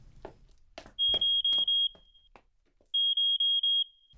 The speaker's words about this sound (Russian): После капельницы Легион вышла из лаборатории, но по дороге на ее смарт-часах зазвенел сигнал тревоги.